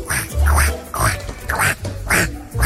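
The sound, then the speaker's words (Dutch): A duck quacks loudly, giving a steady series of about five raspy, nasal quacks spaced roughly half a second apart, with no talking. “Dat is een eend.”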